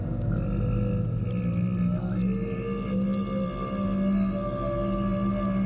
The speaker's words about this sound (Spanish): Continuamos por el camino que había aparecido ante nosotros, conforme el ciervo comenzaba a bramar débilmente. Un relámpago de dolor me recorrió las sienes. El sonido era como un largo lamento.